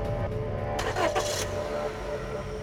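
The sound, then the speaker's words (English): A car engine is turned back on, cranking and catching, a brief burst of starter noise settling into a steady low idle rumble, moderately loud. “He turned the engine back on and checked his phone.”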